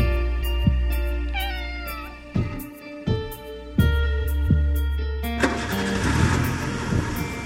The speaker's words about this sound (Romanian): Mașina oprește în fața blocului. Motorul toarce așteptând ca eu să cobor, la fel cum pisica mamei mele aștepta în fiecare dimineață să-i dau de mâncare.